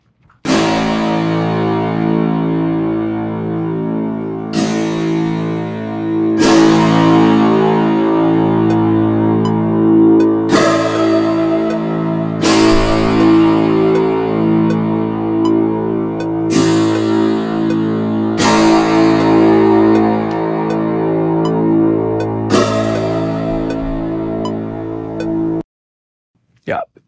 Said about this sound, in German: Das Metronom mache ich wieder aus, das habe ich nur angemacht, damit man den Bezug dazu hat.